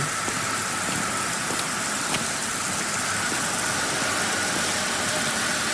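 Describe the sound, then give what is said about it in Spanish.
Steady, dense hiss of rain falling on a street in London, loud and constant throughout, with a low rumble of idling car engines and traffic underneath. No one speaks. “Típico, lloviendo en Londres.”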